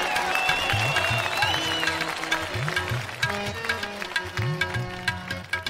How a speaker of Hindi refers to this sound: तालियां तालियां तालियां तालियां